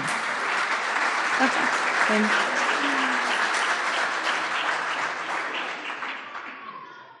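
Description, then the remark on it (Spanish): An audience claps steadily to welcome a woman, a dense wash of many hands applauding at even strength for several seconds before gradually thinning and tapering off, with faint voices murmuring underneath. “Vamos a recibirla con un aplauso que se casa el sábado.”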